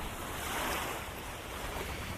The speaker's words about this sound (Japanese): 今日はあなたを葉山の海岸へお誘いいたしましょう。はい、海ドン。寄せては返す波をぼんやり見ながら何も考えない時間いいですね